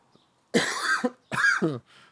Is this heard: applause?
no